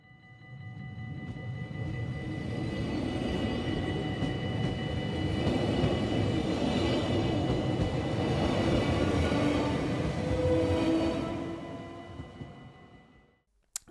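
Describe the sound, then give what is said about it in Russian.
A passenger train rumbles steadily along for several seconds, a dense roar with a faint whining hum on top, before the noise trails off near the end. No one speaks. “Во-первых, название у нас, как э, идет э, название э, этого поезда, идет Рослаз, Рослазбана, то есть, или мы просто называем его банан, потому что, ну, это как-то смешно”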